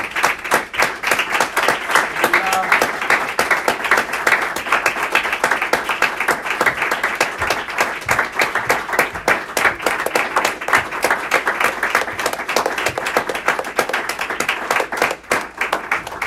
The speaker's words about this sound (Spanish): Démosle un aplauso al Rey Jesús, hermano.